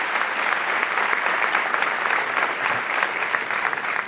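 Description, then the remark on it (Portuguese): An audience in a worship service applauds the Lord together, a dense, steady wash of many hands clapping that holds at an even, fairly loud level for about four seconds without any voices. “Vamos aplaudir ele aí, que ele nos ajude a viver isso.”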